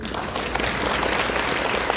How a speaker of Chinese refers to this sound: 所以不管你是几岁，都给自己一个掌声。